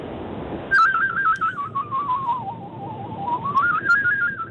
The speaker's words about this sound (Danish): så ved du, at du er på i radioen, så skal du ikke præsentere dig, du skal bare gå i gang med at fløjte. Og det må du meget gerne gøre lige nu.